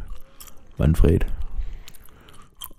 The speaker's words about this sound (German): ich will mal das schmatzen, ne? ey. Ich glaub's nicht, ne? das klingt so übel. Es darf immer nur einer schmatzen, der andere redet, okay?